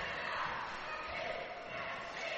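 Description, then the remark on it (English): Steady, dense crowd noise at a basketball game during free throws in the first quarter as a player misses the first one, a continuous broad roar of many voices with no single standout sound, holding an even, moderately loud level throughout. “Pretty good crowd on hand as Hodge misses the first one.”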